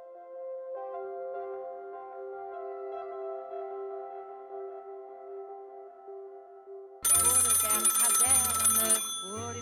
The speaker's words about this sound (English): At 11 minutes past one, the telephone rang at General Marcks HQ. Marcks, commander of the 7th Army, the German defenders of the Normandy coast, was handed the receiver.